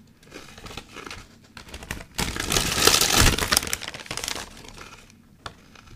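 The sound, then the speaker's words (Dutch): Crinkling and crunching of a bag of potato chips being rustled and chips being crushed, with dense crackling building to a peak in the middle and then tapering off. No one speaks. “Het gekraak en gerutsel van chips.”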